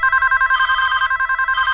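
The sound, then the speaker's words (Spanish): A telephone bell rings continuously and loudly, a rapid trilling pulse of bright metallic tones with no voices over it. “Si quieres que tu teléfono suene, haz publicidad online, porque así recibirás hasta el triple de llamadas.”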